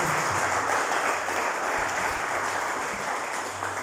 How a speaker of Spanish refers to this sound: Denle un aplauso al Señor, por favor, en esta tarde.